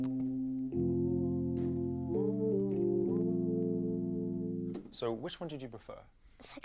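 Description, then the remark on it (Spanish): The hymn Amazing Grace played as a slow melody carried on full, sustained, reharmonized chords that shift through several rich harmonies, held long and smooth, before a voice starts talking over the fading end. “La que preferimos todos, en fin, lo que nos explica precisamente Jacob Collier es que la melodía es esa línea que todos podemos cantar y la armonía es eso que lo acompaña y que lo dota de emoción”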